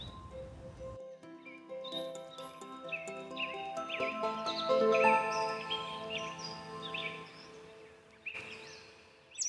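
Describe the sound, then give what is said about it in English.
A bald eagle calls in a run of high, piercing, chattering cries that rise and fall over several seconds, clear, with no voices. “whenever you have a chance and you hear that scream and that cry”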